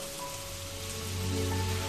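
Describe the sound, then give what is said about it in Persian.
Steady rain patters on a surface, heard through an opened window over a rain-washed city: a continuous soft hiss with scattered droplet taps, even throughout, with a faint low hum underneath and no voices. “هنگام بارش باران پنجره را می گشاید و با تمام وجود گوش می کند باران را”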